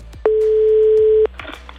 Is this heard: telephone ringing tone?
yes